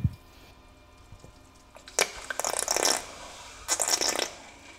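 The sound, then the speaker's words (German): A circulation pump kicks in to circulate oil within a tank, sucking it off from the surface, with wet gurgling, slurping suction noises in two bursts over a low steady mechanical hum. “Das heißt, dieses Geräusch, was man da hört, das ist so ein Sauggeräusch.”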